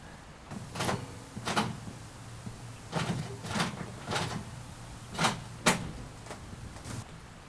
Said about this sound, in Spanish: Quizás no había escuchado bien, pero entonces volví a escucharla. La puerta se abrió.